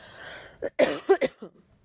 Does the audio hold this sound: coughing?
yes